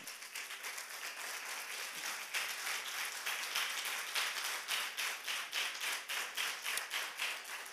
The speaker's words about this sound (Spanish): Quiero que les des el mejor aplauso de la noche al Señor.